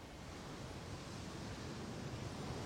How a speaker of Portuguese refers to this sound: não tá bom para surfista, inclusive porque as ondas estão quebrando muito antes, ou seja, não dá nem para você dropar, que é quando o surfista faz o movimento de surfar e curtir a onda até o final.